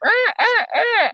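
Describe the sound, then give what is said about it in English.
A goose honks three times in quick succession outdoors, each call loud, nasal and drawn out, with no talking over it. “Yeah, there's like some goose.”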